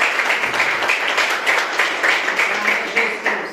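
An audience applauds steadily, many hands clapping in a dense, bright, sustained wash with small swells in loudness throughout, no voices standing out above it.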